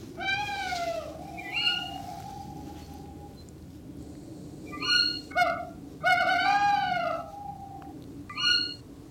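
Tawny owl calls from a male and a female, played back from a phone: a long, wavering low hoot from the male plus several sharp, high, shrieking calls from the female repeated at intervals, fairly clear over a faint background hiss.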